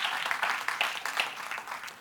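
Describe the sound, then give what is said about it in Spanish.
A crowd of people applauds together, a steady dense wash of many hands clapping at once with no voices, holding an even level throughout; a loud round of applause given to the Lord. “Den un aplauso fuerte a nuestro Señor.”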